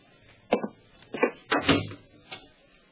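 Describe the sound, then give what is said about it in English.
An apartment door is pushed shut, with a few short knocks and rattles of the handle and latch, a firmer thud in the middle, then a final soft click. No one speaks. “Close the door.”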